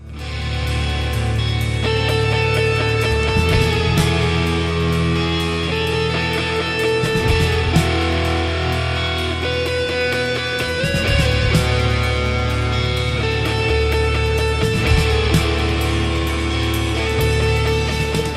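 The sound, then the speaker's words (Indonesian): A loud, dense rock song driven by heavily distorted electric guitar, with steady drums and thick bass filling the mix continuously from start to finish, no voices talking over it. “Tuh, awal-awal coba lu dengerin tuh distorsi gitar.”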